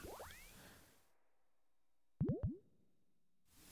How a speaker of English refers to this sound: I have this set up, and I have a cart loaded with different sound effects and I'm just trying them out. So that's what's going on there. If you were wondering, you're thinking, what's that? Did he leave his mobile phone on? Nah.